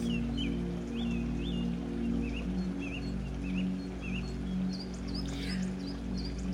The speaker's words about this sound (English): Listen to those birds.